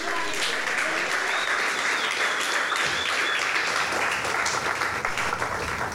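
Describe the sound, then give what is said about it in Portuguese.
An audience applauding the Lord during a church service, a steady wash of many hands clapping at once for about six seconds, dense and even in loudness, with no talking over it. “Se você pode, aplauda o Senhor aí.”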